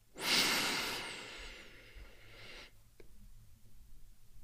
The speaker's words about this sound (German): Gleich nehmen wir gemeinsam noch einen tiefen Atemzug durch die Nase ein und durch den Mund aus. Und beim Ausatmen öffnest du langsam deine Augen. Wir atmen gemeinsam durch die Nase ein